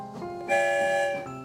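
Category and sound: sound effect, train whistle blowing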